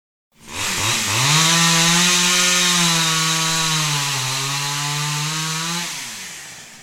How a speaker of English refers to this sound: So old she could barely pull the starter handle on her chainsaw.